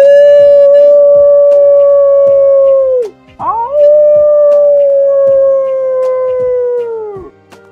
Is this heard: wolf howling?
yes